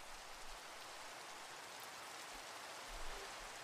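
Steady rain falls in a continuous, even hiss of countless drops, with a faint low rumble underneath and a slight swell near the end. No voices are heard.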